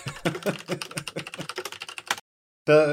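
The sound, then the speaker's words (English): Rapid typing on a computer keyboard as someone looks something up, a quick irregular patter of clicks for about two seconds, then a short silence before a brief tonal sound cuts in at the end. “the handbook sounds suspiciously like Google.”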